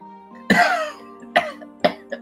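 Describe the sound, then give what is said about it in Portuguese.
A series of four fairly loud coughs: one strong harsh burst followed by three shorter, fading coughs at uneven intervals, with no talking. “Tu nunca tossiu tanto na tua vida como agora.”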